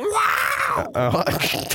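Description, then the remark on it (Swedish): A human voice imitates the classic cat sound effect: a drawn-out, wailing yowl, its pitch rising and falling, followed by a shorter, choppier run of mewing vocal sounds. Fairly loud. “Och, nu kom jag på med, den klassiska kattljudeffekten.”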